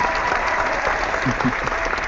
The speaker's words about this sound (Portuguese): Aplausos, aplausos da, da, da, plateia do Por Falar em Corrida.